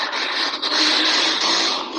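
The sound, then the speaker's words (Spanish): A neighbour's motorcycle roars past as he rides around, a loud, harsh, rasping engine noise that holds steady for about two seconds with a faint high whine on top, and no voices. “Uf, esa moto.”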